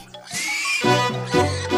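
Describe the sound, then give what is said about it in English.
A voice imitates a pig, giving a drawn-out squealing oink followed by a few shorter grunting oinks, loud with no talking. “Dear me, said the pig.”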